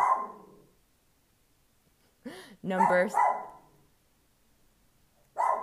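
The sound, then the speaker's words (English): A dog barks sharply about three times in a quick, loud cluster as a FedEx delivery man drops off a package at the home, with a person talking briefly before and after the barking. “oh, my dog, I'm sorry.”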